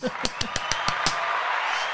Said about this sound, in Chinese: 掌声！